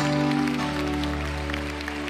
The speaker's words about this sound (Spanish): Dámele el aplauso a Dios.